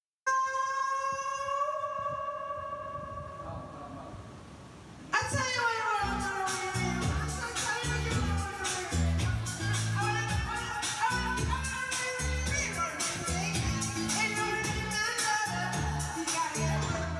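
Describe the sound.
A voice sings long, sustained notes through a microphone with a reverberant, echoing tone, then loud pop backing music with a steady beat kicks in and continues under the singing.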